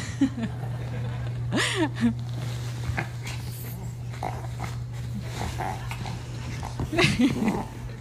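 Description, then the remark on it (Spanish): A small female dog named Zoe plays with a plush toy rat, letting out snorts, soft growls and a couple of rising whimpery squeaks, with a livelier flurry near the end over a steady low electrical hum. “Y quiero que veas a mi perrita ahí jugando con el peluche que Ezequiel le compró.”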